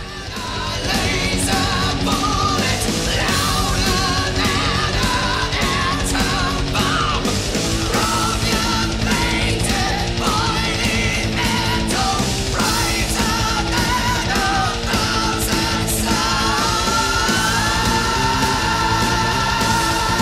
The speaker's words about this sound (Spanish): Espero que estos ejemplos les hayan demostrado que los gritos en el metal no son simple ruido y requieren mucha habilidad para dominar y controlar.